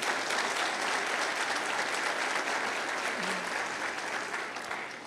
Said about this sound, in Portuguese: Glória a Deus. Isso, pode aplaudir ao Senhor.